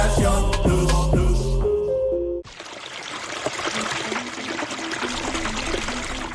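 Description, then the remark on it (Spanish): A short burst of musical notes cuts off, then water gushes steadily from an open tap, fairly loud, running on its own with no voices. “Un grifo abierto puede gastar más de 12 litros por minuto.”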